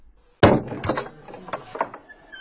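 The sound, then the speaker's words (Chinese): The heavy, thick wooden door of the old Wen family courtyard house in Wengou village is pushed open: a loud thud starts it, followed by a few softer knocks and rattles, then a thin, high creak as it swings. No voices. “推开温家大院厚重的木门”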